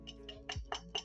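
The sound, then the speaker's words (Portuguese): Five quick taps on a ceramic cup, struck to demonstrate its sound, in a steady rhythm, each a short bright clink with a slight ring. The last three strikes land harder than the first two, with no talking. “É o som dessa xícara.”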